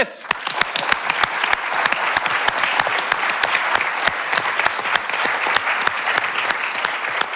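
A crowd applauds steadily, a dense wash of many hands clapping with sharp individual claps standing out, sustained at an even, fairly loud level throughout.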